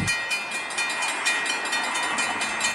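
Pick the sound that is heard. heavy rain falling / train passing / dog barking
train passing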